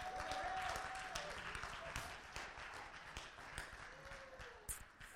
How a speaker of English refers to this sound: Give the Lord a hand clap.